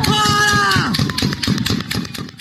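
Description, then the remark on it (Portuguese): A loud, strained shout rises over a crowd at first, then gives way to a rapid string of sharp, cracking gunshots in quick bursts amid continued commotion, harsh. From a social-media video in Brazil of protesters attacking Federal Highway Police agents, throwing objects and stones. “O som que você acabou de ouvir, de gritos e tiros, é de um dos vídeos publicados nas redes sociais nesta segunda-feira que mostram o momento em que bolsonaristas iniciam ataques contra agentes da Polícia Rodoviária Federal, atirando objetos, pedras”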